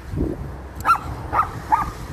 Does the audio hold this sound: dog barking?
yes